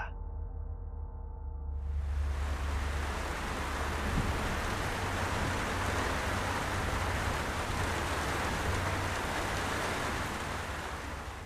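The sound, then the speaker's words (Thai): Heavy rain pours down outside a house on a mountain, so hard that visibility is short: a dense, steady roar swelling in after a quieter low-toned opening and holding loud and unbroken to the end, with a deep rumble underneath. “เสียงฝนที่เทลงมาอย่างหนักทำให้ผมละความสนใจออกจากห้องชั่วคราว ผมมองออกไปด้านนอกผ่านประตู และเห็นฝนที่ตกลงมาอย่างหนัก จนมองเห็นวิสัยทัศน์ได้ไม่ไกลนัก”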